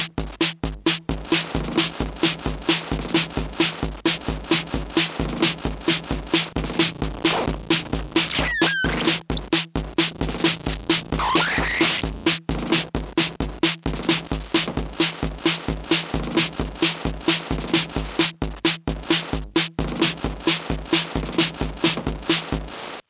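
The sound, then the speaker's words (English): A steady, looping beat of kick and snare drums runs through a resonator effect as its resonance and frequency knobs are adjusted, sounding gritty and distorted, with a brief swooping tone sweeping across midway; no one speaks. “And we'll bring that uh, kicks and snare back in.”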